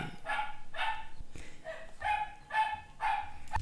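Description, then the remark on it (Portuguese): Several dogs bark repeatedly in quick bursts, about six sharp yaps in a steady rhythm, moderately loud, with no one talking. “Olha a cachorrada, que beleza. Deixa elas latir.”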